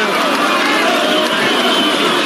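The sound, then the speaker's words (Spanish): A loud crowd ovation in the packed Toreo de Cuatro Caminos arena at a lucha libre show featuring El Santo, Gori Guerrero, Huracán Ramírez and Solitario, a dense, steady roar of cheering and applause with no break or single voice standing out. “La ovación se desgrade en este”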